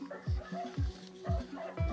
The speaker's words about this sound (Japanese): 激しく吠える複数の犬中にはつながれていない犬もいます